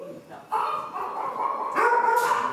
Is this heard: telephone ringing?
no